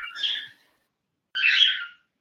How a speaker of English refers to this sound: it's two birds, and uh, they they enjoy uh, my company. And so when I'm over here in the corner, okay. get a little chatty.